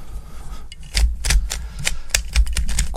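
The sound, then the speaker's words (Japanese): Rapid plastic clicking and clacking of a MoYu speed cube being twisted and solved, a quick irregular flurry of sharp snaps running the whole time, with no voices. “これがねこういうことを毎日やってるわけだよね揃ったまあ、スピードキューブも楽しいよ”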